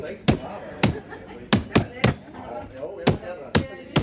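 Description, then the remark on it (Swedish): A woman slams a paper bag holding a hamster hard against a cabinet again and again, about eight loud, sharp thwacks in an uneven rhythm, with faint voices murmuring underneath. “Eh, så morsan fick ta påsen och dra med allt vad hon kunde i ett ilskåp.”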